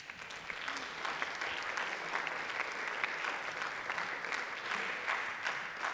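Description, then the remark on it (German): An audience applauds steadily to welcome a speaker before his talk, a dense wash of many hands clapping at an even loudness for several seconds, with sharp individual claps poking out of the texture and no voices on top. “Bitte gebt ihm einen großen Applaus.”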